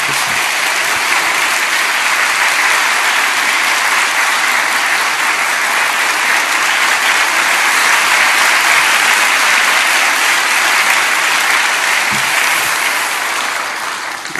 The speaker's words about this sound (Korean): 나오실 때 우리 큰 박수로 환영하면서